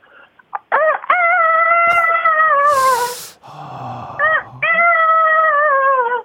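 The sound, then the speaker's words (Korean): A radio show caller on the phone loudly imitates a chicken, producing a few long, wavering, drawn-out squawking calls with brief choppy bursts between them, alone without talk. “자, 닭소리요?”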